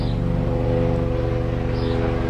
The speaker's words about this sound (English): hold for plane.